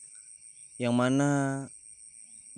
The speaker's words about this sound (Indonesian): di episode kali ini ini gue nge-record di tengah sawah dengan background suara jangkrik suara kodok